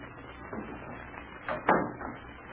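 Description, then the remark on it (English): A door swings shut with a single muffled thud, preceded by faint shuffling and movement; no one speaks. “Come on in, shut the door.”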